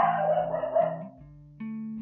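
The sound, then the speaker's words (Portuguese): A pet dog named Peach barks and whines at home, a burst of rough yelping that trails into steadier, drawn-out tonal sounds, with no one talking. “Essa que vocês escutaram aí é a minha cachorra Peach.”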